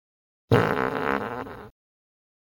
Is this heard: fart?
yes